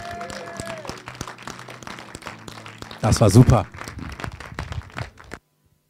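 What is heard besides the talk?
audience applause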